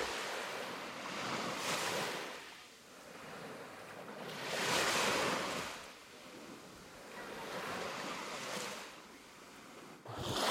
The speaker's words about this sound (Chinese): 就是在望安啊。 对，望安口沙滩，噔噔噔噔，我要环场绕一圈。 你们有听到海浪声吗？